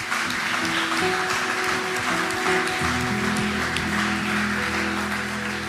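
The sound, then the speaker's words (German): Steady, dense applause from an audience after a prayer, given for those who spoke the prayer for the first time, a continuous wash of clapping that holds at an even level for several seconds, with a low sustained musical tone underneath. “Wollen lass uns mal denen, die das Gebet das erste Mal gesprochen haben, einen fetten Applaus geben.”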